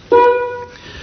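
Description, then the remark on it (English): A single loud game show buzzer, pressed by the host, sounds once, a harsh, steady electronic tone lasting about half a second before cutting off, with no voices over it. “The next person will give us the corresponding bad news, and then the next person the good news, and so on, until I press the buzzer, which for those of you listening at home might like to know, it sounds like this.”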